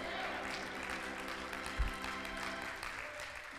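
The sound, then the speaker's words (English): A church audience bursts into sustained applause during a sermon, many hands clapping in a dense, continuous patter, with a steady low hum beneath and a brief thump partway through. “No, clap your hands if you know it's the truth.”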